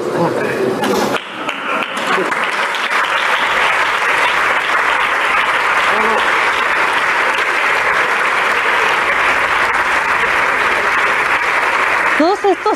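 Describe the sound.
Sustained audience applause, a dense steady roar of many hands clapping for about ten seconds, with a voice starting up as it tails off at the end.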